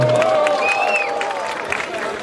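A large crowd cheers and shouts continuously, with shrill whistles rising above the roar, making noise to vote for a battle contestant to go to the final; the noise stays loud and steady throughout the short burst.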